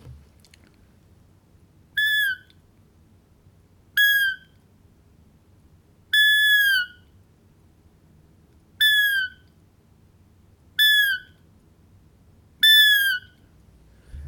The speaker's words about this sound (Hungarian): E, és ilyenkor a gida, amikor megijed, vagy unatkozik, vagy, vagy valamitől megriad, e, hívja a mamáját. Ez hogyan szól?